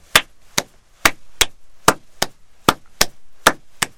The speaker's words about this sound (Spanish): Es como cuando uno aplaude, ¿no? Si tú aplaudes a contratiempo mío, vas a llenar mi espacio.